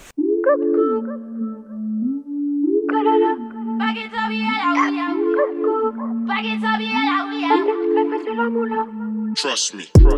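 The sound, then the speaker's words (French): A song's instrumental intro plays loudly and steadily: a repeating, stepping low bass line under bright, layered synth-like melodic phrases, with no singing, ending in a sudden sharp burst. “mais juste avant, on va écouter euh, un, morceau que tu as choisi”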